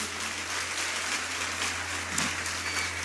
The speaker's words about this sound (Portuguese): Vamos lá, alguém. Vamos aplaudir Jesus por esse ministério de adoração.